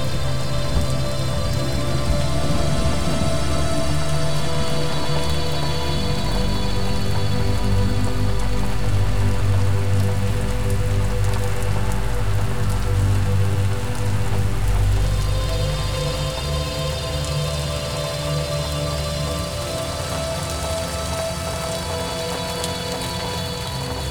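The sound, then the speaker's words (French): Steady rain falls through a forest during a thunderstorm, a dense patter on leaves and ground with a low rumbling undertone of thunder, easing slightly toward the end. No voices. “la douce odeur de la forêt est encore plus agréable avec la pluie qui tombe.”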